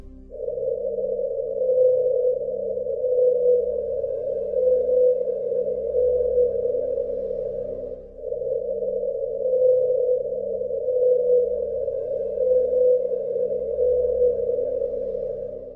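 A sped-up call of the so-called 52-hertz whale, believed to be the world's loneliest whale: two long, steady, humming tones, each lasting several seconds with a faint wavering pulse, separated by a brief break. It sounds clear, with no voices.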